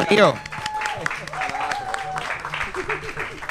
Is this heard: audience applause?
yes